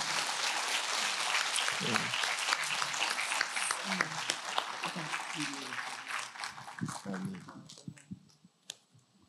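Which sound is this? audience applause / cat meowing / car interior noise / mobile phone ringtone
audience applause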